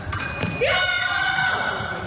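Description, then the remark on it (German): Two quick metallic clashes of épée blades at a fencing tournament, followed by a loud, steady electronic beep that holds for over a second, sounding when a point is scored. “Ja, man hört schon ähm, das Quirren der Degen und lautes Piepen, wenn ein Punkt erzielt wurde.”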